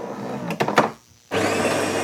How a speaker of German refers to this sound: Ob wir zu Hause die Kaffeemaschine bedienen